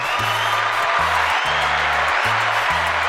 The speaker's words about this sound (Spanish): Aplauso al Poli.